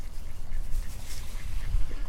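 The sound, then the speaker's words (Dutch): Ducks quack in a busy, overlapping jumble of short nasal calls over steady low rumbling background noise, with no one talking. “Kijk eens, ze- zelfs de eenden wennen aan, wennen aan de naam Jaapie.”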